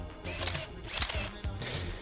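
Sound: camera shutter click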